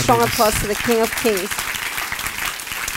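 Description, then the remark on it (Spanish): Loud, steady applause for the King from a church audience fills the whole clip, with a few voices calling out and cheering over it during the first second and a half. “Él ese fuerte aplauso al Rey”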